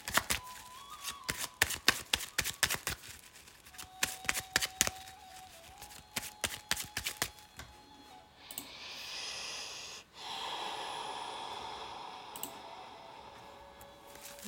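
Tarot cards being shuffled for a partner relationship reading: a run of crisp, rapid riffling clicks, then a steadier, louder rustling wash of cards sliding together, with no one speaking.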